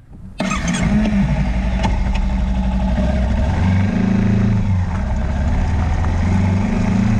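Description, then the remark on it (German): A motorcycle engine is started by its rider in the morning in Thailand. It fires up abruptly after a brief silence, then settles into a loud, steady idle with a throaty rumble that briefly shifts pitch as it's revved slightly. “Dann steige ich auf das Motorrad und werfe den Motor an.”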